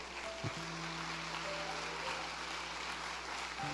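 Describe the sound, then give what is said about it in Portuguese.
Steady, dense applause from a large crowd applauding Jesus fills the space, a continuous wash of clapping with a low sustained hum running underneath. “Pode aplaudir Jesus.”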